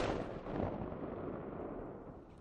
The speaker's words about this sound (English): Mountain mornings above Ketchum, Idaho, often begin with cannon fire.